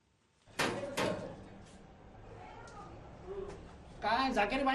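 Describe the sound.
Two firm, sharp knocks on a stranger's door by a small team checking homes for leaks and dripping water taps, followed by a few seconds of quiet ambience before people start talking near the end.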